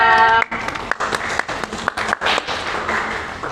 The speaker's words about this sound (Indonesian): Tepuk tangan dong semuanya.